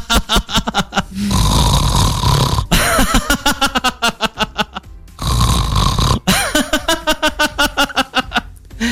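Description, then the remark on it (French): A voice imitates loud, rasping snores, then breaks into rapid bursts of laughter on the exhale, demonstrating a 'sleep laughter' exercise; the fake snore and the laughter repeat twice, loud, with no talking. “C'est ça, c'est-à-dire faire semblant de ronfler. Et à l'expiration, on rit.”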